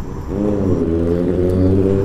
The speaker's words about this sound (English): Let's go on a trip to the Butterfly Project. It is a busy intersection. There are many cars and trucks whizzing by.